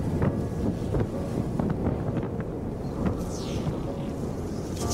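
nature, strong wind blowing

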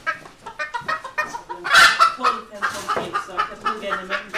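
bird, rooster clucking

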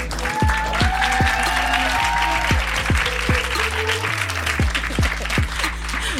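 crowd, audience applause and cheering

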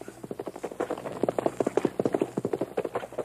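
animal, horse galloping away

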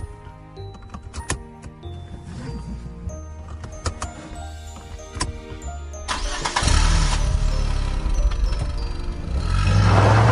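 vehicle, car engine starting

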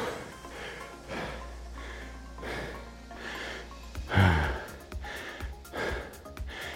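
human body sound, heavy breathing

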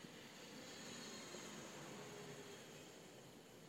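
vehicle, airplane flying overhead

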